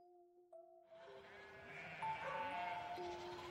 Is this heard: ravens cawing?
no